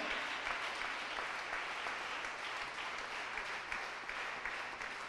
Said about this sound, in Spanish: Gloria a Dios, dele palmas al rey, hermano.